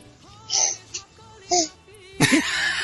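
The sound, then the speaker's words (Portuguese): A baby girl sitting on someone's lap whimpers and babbles: a few short, high-pitched vocal bursts with pauses between them, ending in a louder, longer fussy sound. “Então, se vazar aí, não esquenta não. É ela querendo participar, hein?”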